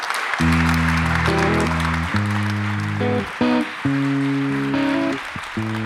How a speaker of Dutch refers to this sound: Dank u wel voor uw komst en een groot applaus voor Stefan Hertmans.